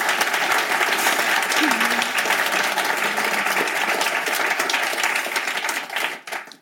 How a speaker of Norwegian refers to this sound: Vi gir dere en applaus.